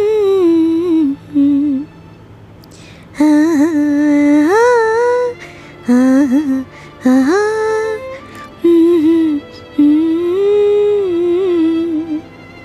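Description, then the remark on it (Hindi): A melodic mobile phone ringtone plays a repeating tune of gliding, bright tones in short phrases with brief pauses, loud, with no one talking. “अपनी माँ का सिखाया हुआ गाना गुनगुनाते हुए अचानक से मयूरी ने अपने मोबाइल के रिंगटोन की आवाज़ सुनी”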